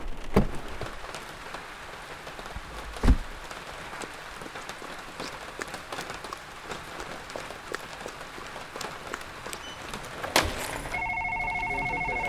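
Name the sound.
rain falling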